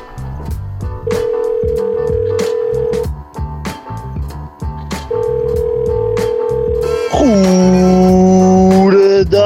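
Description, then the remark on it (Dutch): Two long, steady telephone tones separated by a pause, followed by a louder sustained voicemail beep after a voicemail greeting, all over a rhythmic thumping background of music. “Dus spreek maar iets in na de piep.”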